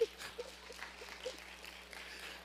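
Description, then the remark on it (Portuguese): A crowd claps together in a quiet, steady patter of applause that fills the whole short moment without any voices. “Não, não, você é mas pode aplaudir, irmão”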